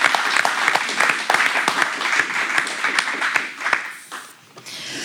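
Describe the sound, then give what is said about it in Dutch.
An audience applauds, a dense patter of many hands clapping steadily for about four seconds before thinning out and fading at the end. “Nog één applaus voor Wijken.”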